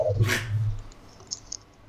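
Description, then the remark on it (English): A dog outside, being taken out to go to the bathroom, gives one short vocal burst, like a quick bark or yelp, then quiet background noise with a few faint clicks follows. “I'm actually outside with the dog right now.”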